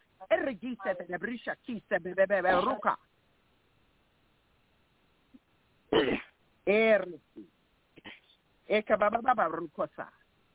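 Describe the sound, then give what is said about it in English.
Throat clearing and a few short, harsh coughs from a person during a deliverance prayer, separated by a quiet pause, with stretches of a voice talking before and after. “You keep on coughing, all right?”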